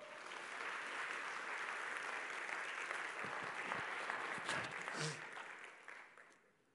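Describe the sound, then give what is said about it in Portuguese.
An audience applauds the Lord steadily, a dense wash of clapping that holds for several seconds with a few sharper claps near the end, then fades out. “Aplauda ao Senhor.”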